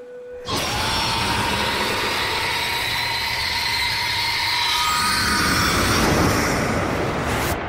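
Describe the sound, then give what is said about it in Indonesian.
A loud, shrill, ear-splitting screeching of arriving harpies, bird-like creatures, erupts from the air and holds for several seconds, a harsh, piercing wail layered over a rough roaring noise with no talking. “Suara jeritan yang melengking dan membekakan telinga Para kru Argo yang bersembunyi langsung menutup telinga mereka, sementara Vineus tahu bahwa mimpi buruknya setiap hari berulang lagi.”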